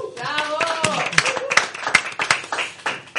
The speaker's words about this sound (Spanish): Como siempre, os tenemos que dar las gracias primero al público que estáis aquí con nosotros. Un aplauso.